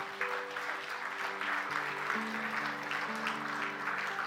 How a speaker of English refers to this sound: Give them a good hand clap as they come.